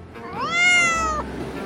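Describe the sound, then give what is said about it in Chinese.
A single drawn-out cat meow, rising then holding a bright, harmonic tone for about a second before cutting off, heard clearly on its own with no talking, as a boy and two cats walk through a dense forest after getting off a train. “小雷和两只猫咪开始在一片森林里行走”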